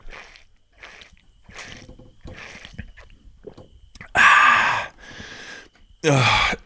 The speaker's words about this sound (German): Ja, ach so, ich nuckel hier in meiner, äh, ich habe doch hier meine 3 Liter Trinkflasche, da nuckel ich dran.